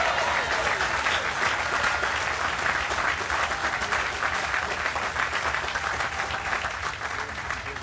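A large crowd in Norfolk claps steadily for several seconds to welcome an arriving train service, a dense, continuous wash of applause that stays loud and even throughout, with no voices standing out above it.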